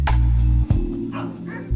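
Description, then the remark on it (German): Several dogs bark and yip in quick, overlapping bursts, loud, with a steady low hum underneath and a brief pause near the middle, at a dog rescue shelter in Niš, Serbia. “800 Hunde hat er in den letzten Jahren hier aufgenommen.”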